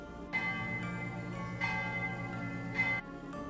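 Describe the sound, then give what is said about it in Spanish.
Church bells ring out in a slow, steady rhythm as darkness falls at nine o'clock at night: three resonant strikes about a second apart, each one humming and overlapping the last. The tolling is clear, with no voices. “Allí no se dieron cuenta de que comenzó a oscurecerse y las campanas comenzaron a sonar”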